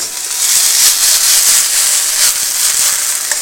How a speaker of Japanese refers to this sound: そうそうこうしてるうちに 500ml が沸騰したんでそこにこの麺を入れるでしょこれは何分やんの5分間茹でる